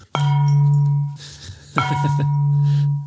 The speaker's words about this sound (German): Ähm, oh, ich wollte gerade die Glocke reinholen. Achso, ja, dann los.